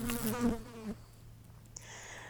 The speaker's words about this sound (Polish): Minęła dosłownie chwila i zaczęliśmy biec, a za nami ciągnęła się bzycząca i gryząca czerni.